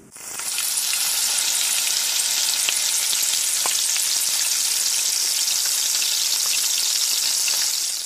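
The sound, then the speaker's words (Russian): Steady, loud sizzling and crackling of batter-coated chicken pieces frying in hot oil after being slowly lowered in. A dense hiss with scattered pops holds constant for the whole stretch, with no voices. “Обваляйте курицу и аккуратно, медленно поместите ее в масло.”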